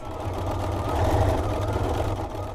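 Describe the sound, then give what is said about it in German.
A tailor's sewing machine runs steadily as she works on jeans in the Netherlands, a fast, even mechanical rattle with a low humming drone underneath that swells slightly in the middle and continues without pause. “Mia Stick, die ist Schneiderin und repariert unter anderem Mud-Jeans. Davon hatte sie auch einen kleinen Stapel direkt bei sich liegen und eine hat sie sich dann direkt an der Nähmaschine”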